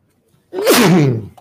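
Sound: sneeze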